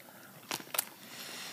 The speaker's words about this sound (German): Jetzt hört man uns hier nur schmatzen. Das ist nicht schlimm, jetzt sind die Leute aus den ersten Folgen schon gewohnt.